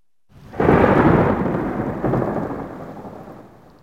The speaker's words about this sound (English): Bang! Thunder crashes.